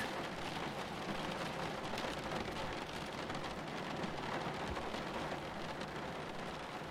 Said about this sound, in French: Pendant quelques minutes, vous n'entendez plus que la pluie et votre respiration.